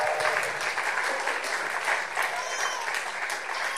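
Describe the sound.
A crowd applauds steadily, a dense and fairly loud patter of many hands clapping at once, sustained for a few seconds with faint voices mixed into the clapping.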